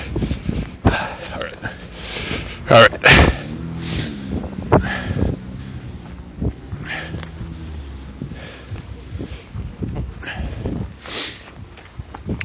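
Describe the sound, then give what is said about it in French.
Gusty wind buffets the microphone outdoors on a street, a continuous rough rumble with bursts of louder noise, while a person talks underneath it. “Ah, excusez pour le vent. il y a bien du vent.”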